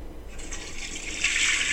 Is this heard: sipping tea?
no